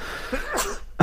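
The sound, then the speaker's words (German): A single sharp sneeze bursts out, a quick intake followed by an explosive burst, then a brief silence and a small trailing noise. “Oh, Gesundheit.”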